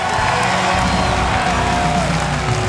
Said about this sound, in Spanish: Tú tienes poder y autoridad. Dale un aplauso. Fuerte. Grita fuerte. Sí, Señor.